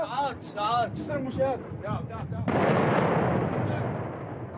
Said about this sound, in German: Sekunden entscheiden in Aleppo über Leben und Tod. Ein Hubschrauber der syrischen Armee wirft eine Fassbombe ab, ein Stahlbehälter gefüllt mit Sprengstoff und Eisenkugeln.